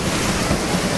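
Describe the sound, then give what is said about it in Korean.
A loud, continuous roar of stormy wind and surging waves, dense with no breaks, and no voices, in a retelling of the storm that Jesus rebukes. “그러자 예수님께서 일어나 성난 바람과 파도에”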